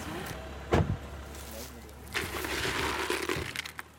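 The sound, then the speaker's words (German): A hunter gets out of the second of two cars at a wild boar feeding site: a sharp thud like a car door early on, then rustling and shuffling movement over a low, steady engine-like hum. “Aus dem zweiten Auto steigt Jagdfreund Moritz Nickel aus.”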